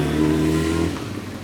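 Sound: motorcycle engine revving past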